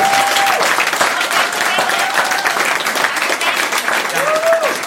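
Sustained applause from a large audience, dense and steady throughout, with a few whistles and cheers rising above the clapping.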